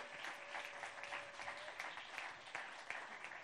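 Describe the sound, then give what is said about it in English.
A crowd claps steadily, a dense, continuous wash of many hands applauding, filling the whole stretch without any voices standing out. The audience is applauding volunteer leaders who have been asked to stand up to be honored. “All right, let's clap for these people.”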